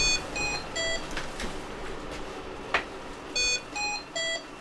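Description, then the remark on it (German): A medical device alarm beeps in short repeated bursts of stacked electronic tones, sounding in separated groups over a low hum of room noise, with no one speaking. “Mir war das Gerät Angst vor mir, weil es immer sofort aufhört zu alarmieren, wenn ich gucken komme.”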